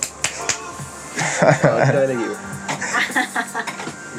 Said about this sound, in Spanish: Un aplauso. Un aplauso a la invitada de hoy.